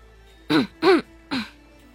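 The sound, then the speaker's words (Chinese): A person clears their throat in three short, voiced bursts, each a rough, rising-then-falling 'ahem' sound with brief pauses between, fairly loud against an otherwise quiet background. “周芷清了清嗓子，开口说道。”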